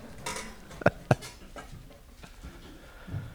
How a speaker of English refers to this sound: We were looking at characteristics of the Spirit of God, and I'm again going to read some verses once I move these chairs and everything out of the way.